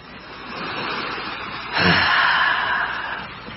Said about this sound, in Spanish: escuchan las olas, se sienten mejor, menos tensos.